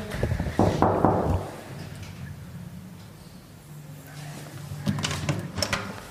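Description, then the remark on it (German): A door handle is rattled and jiggled several times against a locked latch, with clunking bursts at the start and again near the end and a low hum between. “Abgeschlossen.”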